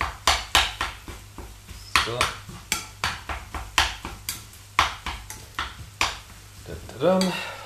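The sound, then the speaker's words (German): Minced meat sizzling as it is browned in a pan while a utensil scrapes and stirs it in quick, repeated strokes, fairly loud, with a brief spoken word from a person. “Dann immer schön schauen, dass wir das Hack hier auch schön anbraten.”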